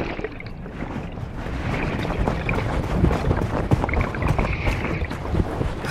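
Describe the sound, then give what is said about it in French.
A dull, continuous scraping and rubbing, like something dragged over sand, underwater in a shallow, warm, salty sea in the China Sea, seeming to come from the sea floor; a dense, gritty rumble with many small crackling ticks throughout and no voices. “J'entends un bruit sourd comme si on frottait quelque chose sur du sable.”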